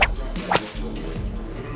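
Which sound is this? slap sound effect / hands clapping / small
slap sound effect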